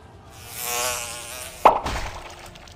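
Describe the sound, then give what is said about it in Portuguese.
A thin, whining mosquito buzz swells and fades over about a second and a half, then a sudden sharp pop as a mosquito explodes, followed by a softer, noisy tail. No one speaks. “Quando um dos mosquitos fica com uma bolotinha vermelha e explode.”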